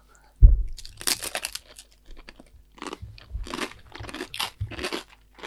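Loud, crisp crunching as someone chews fermented cheese, a sharp initial bite followed by a dozen or so irregular, crackly chomps with brief pauses between them and no talking.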